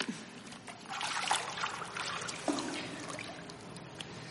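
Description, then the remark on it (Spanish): Water sloshes and splashes as a man climbs out of a swimming pool, with a couple of sharper splashes and steady trickling and dripping. No one speaks. “Ella se sienta en el bordillo mientras su padre sale del agua.”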